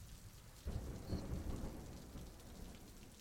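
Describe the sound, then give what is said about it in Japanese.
Rain that has just begun falling in the evening pours down with a dense, hissing patter, joined near the start by a deep rumble of thunder that swells and slowly fades beneath the continuing downpour. “窓際に立つ彼女の横顔がガラスに反射し、雨粒と重なって泣いているように見えた。”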